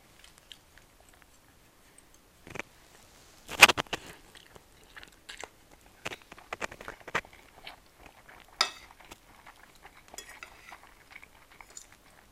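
Someone eats a home-cooked combined breakfast-lunch, chewing with crunchy, irregular bites and soft mouth sounds, with a few sharp clicks like cutlery touching a dish; no one speaks.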